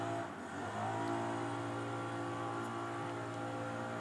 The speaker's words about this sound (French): désolé, vous entendez peut-être du bruit. Je vais baisser un peu le micro parce que euh, nous avons dans la cour intérieure de la rédaction des jardiniers qui sont entrés en action pour ramasser des feuilles à l'aide d'appareils extrêmement bruyants.